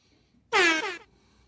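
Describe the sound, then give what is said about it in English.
A single loud air horn blast lasting about half a second, bright and brassy with strong harmonics, sounding alone against near silence. “I gave David the go ahead to give us that horn”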